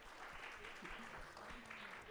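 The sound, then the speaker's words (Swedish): A steady wash of audience applause at the Dramatenbaren as actress Pernilla August is introduced as a guest, dense clapping at an even level throughout with a faint voice murmuring underneath. “Och vi börjar genom applåderna med Pernilla August.”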